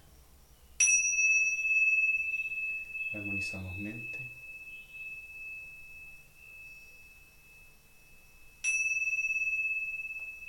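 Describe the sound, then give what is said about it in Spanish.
Tingsha cymbals are struck twice, several seconds apart, to begin harmonizing body, mind, spirit, emotions and energy; each strike a bright, high metallic ding whose steady shimmering tone rings on throughout. A voice speaks briefly between the strikes. “Vamos a iniciar armonizando nuestro, nuestro cuatro cuerpos, la mente, el espíritu, las emociones y nuestra energía a través del sonido de las tinchas.”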